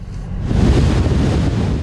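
Loud, roaring wind buffets the microphone while heavy surf churns and crashes, a dense continuous rumble of storm waves and gusts with no voices; giant waves whipped up by strong wind on the Black Sea coast, reaching up to 5 metres and hitting the shoreline.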